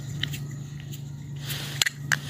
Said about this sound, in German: Hier die, die schönen, ähm, äh, stacheligen kleinen Qigong-Kugeln, die diese Geräusche nicht machen dürfen, wenn man sie richtig macht, aber äh, weil die sich nicht berühren. Aber wenn ich das jetzt so mache.